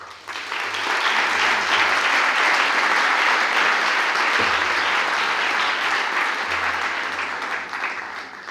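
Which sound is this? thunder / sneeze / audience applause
audience applause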